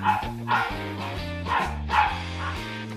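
A dog that wants to play barks repeatedly, about four sharp woofs in an uneven rhythm over a few seconds, moderately loud and with no one speaking.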